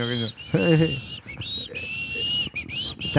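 Someone whistles a bright, sustained high tune with a few rising slides and short breaks, fairly loud, while a voice briefly talks underneath near the start.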